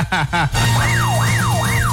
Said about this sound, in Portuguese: Eu vou botar aquela sirene pra ti também.